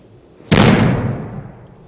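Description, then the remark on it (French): One loud, sharp slap of hands hitting the mat as the back touches the ground during a backward breakfall, a sudden full-bodied thud that fades out gradually over about a second, with no voices. “Puis, frapper les mains par terre quand le dos touche le sol.”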